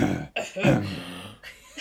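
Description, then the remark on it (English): A deep, gravelly throat clearing with a rough, rattling vibration, fairly loud, rumbling in a couple of rasping bursts over about two seconds. “So if you go when you do it like a really deep grovelly,”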